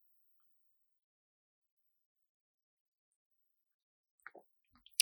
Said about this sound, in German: Ich werde gerade nur noch mal einen Schluck von meinem Wein nippen.